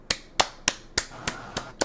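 hand clapping

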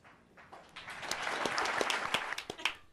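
audience clapping

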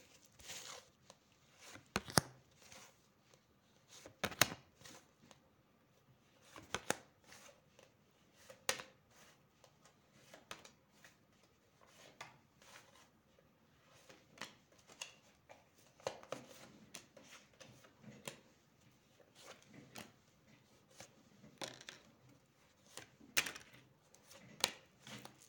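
shuffling tarot cards

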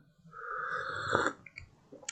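slurping coffee

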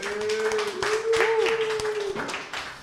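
applause

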